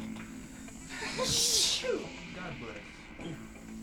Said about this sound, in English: I think this is finally like all the sneezing I've been wanting to do for like the last two hours. Like, oh my god, my nose has been tickling forever.